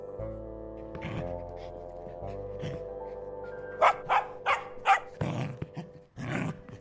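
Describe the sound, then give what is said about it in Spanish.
A dog barks and growls, with a low rumbling growl followed by a quick run of four sharp barks and then more agitated growling and snarling. “Este perro come mejor que todos nosotros.”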